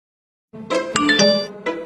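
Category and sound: signal or alarm, text message notification chime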